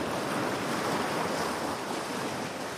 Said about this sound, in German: In der Ferne erkennst du ein türkisblaues Meer. Du hörst das Rauschen der Wellen kannst das Salz in der Luft beinahe schmecken.